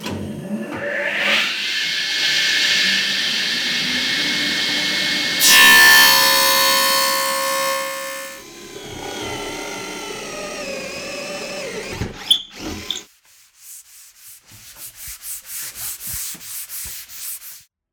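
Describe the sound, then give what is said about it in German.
Woodworking by a carpenter: a long stretch of steady abrasive sanding, a whining power-tool burst, a few sharp knocks, then rhythmic back-and-forth sawing strokes, all fairly loud with no talking. “Du hast es bestimmt schon gehört. Ich bin Tischlerin.”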